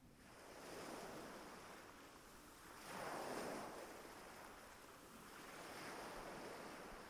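Ocean waves wash onto a beach in slow, rolling swells, each surge building and receding in a steady rhythm, with a soft wind hiss underneath and no voices.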